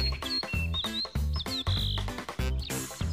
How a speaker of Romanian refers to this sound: tuturor cred că ne place când mergem prin pădure să ascultăm trilurile păsărilor.